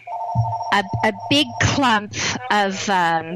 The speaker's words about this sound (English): sorry about the phone ringing.